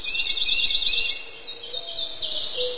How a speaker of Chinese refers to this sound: 还有一个丛林，我我给这个环境声这个标记的是丛林鸟鸣池塘黎明，听听这是个啥？